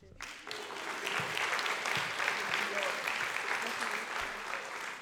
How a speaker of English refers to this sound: And of course, we want to thank the families for being here, supporting your child in every step of the way since they're young. You, and no, yeah, you could clap now.